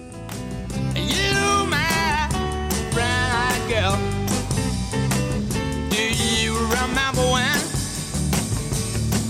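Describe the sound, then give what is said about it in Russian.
An upbeat, danceable song chosen by the guest plays on air, loud and continuous, with a lively sung vocal line gliding over a steady beat and full backing band. No one talks over it. “Очень веселая, красивая, хочется танцевать и петь, и подпевать.”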